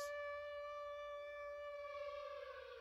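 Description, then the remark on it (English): A loud, sustained air-raid siren drones with a steady harmonic wail, ominous and unbroken, swelling slightly toward the end with a low rumble beneath it. “the scariest sound that we all recognise as horror gaming fans as the siren from Silent Hill”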